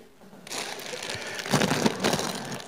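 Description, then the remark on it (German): Dry, brittle crunching and rattling of three packs of tortilla chips being crushed and shaken in a glass jar, continuous, growing louder and denser in the second half with no talking. “Hier sind mittlerweile drei Packungen Tortilla-Chips drin.”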